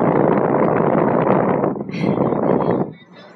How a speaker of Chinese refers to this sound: 给大家听一下电风扇的声音吧，我们又要感受夏天了。